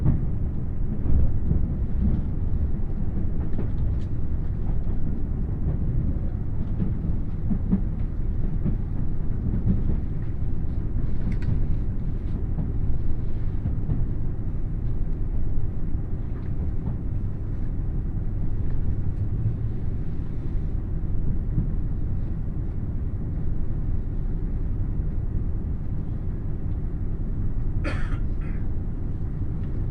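Steady low rumble of the Limited Express Nanpu No. 20 in motion on the Dosan Line between Oboke and Tadotsu, heard from inside the carriage, with a continuous droning roar throughout and a brief sharper mechanical click near the end; no voices.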